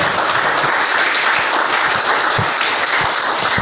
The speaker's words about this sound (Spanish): Den un aplauso al Señor, por favor, esta mañana.